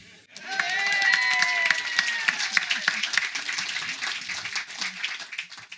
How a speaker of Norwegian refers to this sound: Vi gir han en applaus for det.